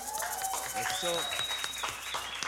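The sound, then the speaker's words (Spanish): A live audience applauds with steady, dense clapping, mixed with loud whistles and cheering voices throughout. “Aplauso del hermoso público, por favor.”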